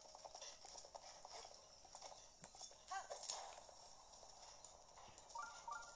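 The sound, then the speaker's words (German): Horse hooves clip-clop in a steady, fairly quick rhythm, with a soft ambient background and a brief whinny-like sound partway through. “Pferd, komm mal her.”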